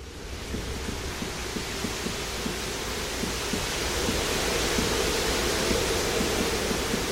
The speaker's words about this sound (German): Oder eben auch der künstliche Regen im Tropenhaus, der im Trailer des Films so klingt.